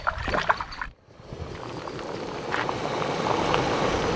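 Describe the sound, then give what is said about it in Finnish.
A canoe paddle dips and splashes through water in a few irregular strokes, pausing briefly before a steady wash of moving water and wind with occasional light splashes. “Ja tuota, joo, pitäisikö se meikänkin meloa vähän?”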